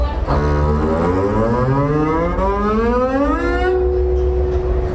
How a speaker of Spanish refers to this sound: El contrabajo tiene unas posibilidades, por ejemplo, esto.